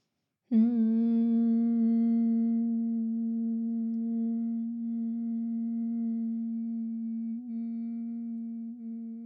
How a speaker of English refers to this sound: So hum first and then analyze the in breath you take after the hum.